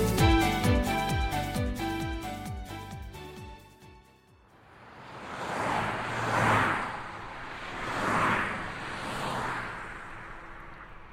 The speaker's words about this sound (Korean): 불끈 달아오른 고속도로를 차들은 달리고 또 달렸다.